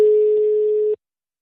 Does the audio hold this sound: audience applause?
no